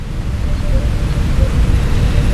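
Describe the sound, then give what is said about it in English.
Steady falling rain in a small village, heard as a looped recording, makes a dense, even hiss with a low rumble beneath it, continuous and fairly loud throughout, with no voices or distinct individual drops standing out. “I can't listen to any un- any other rainy channel. Why? Because this rain is from my tiny village.”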